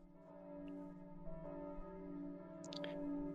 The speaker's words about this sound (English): you are awoken by the sound of tolling bells.